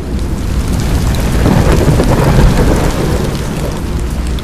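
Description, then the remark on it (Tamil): Steady rain pours down in a dense, continuous, loud hiss, with a low rumbling undertone like thunder and no voices. “போக போக அந்த காற்றுல இருக்க ஈரப்பதம் அதிகமாகிட்டு மெல்லிய சாரல் உங்கள் கன்னத்தில் தூரல் போட ஆரம்பிக்குது அப்படியே மெதுவாக மழை பெய்ய ஆரம்பிக்குது”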